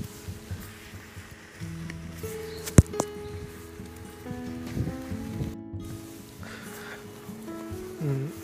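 Steady rain patters on an umbrella overhead as someone takes a routine walk on a rainy day, about 18.2°C with 85% humidity; a continuous soft hiss with one sharp tap partway through and low background hum beneath.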